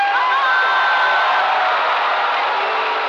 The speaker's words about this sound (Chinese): 给他掌声鼓励鼓励！